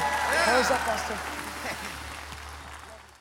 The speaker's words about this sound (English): Come on, can we give the Lord a big clap? Amen.